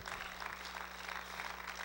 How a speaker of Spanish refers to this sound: Dale un aplauso si quiere el Señor, déselo.